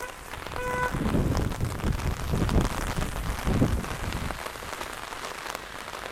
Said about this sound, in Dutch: Ik ga daar even terugluisteren of het eh, door het getik van de regen wel te verstaan is. Anders neem ik hem even opnieuw op.